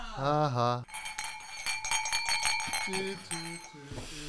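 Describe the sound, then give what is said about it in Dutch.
Drinking glasses clink and ring against each other several times as they're picked up, bright, with tones lingering between knocks. A voice is heard briefly at the start and faintly later. “Ik moet even glazen pakken.”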